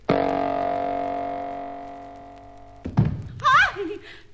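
A steady electronic hum fades, then a single heavy, solid thud as a person hits the floor inside a rocket when its artificial gravity is intensified, followed by a brief startled vocal cry.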